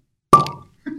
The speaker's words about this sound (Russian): Прекрасный звук. В первом выпуске мы тоже открывали бутылку.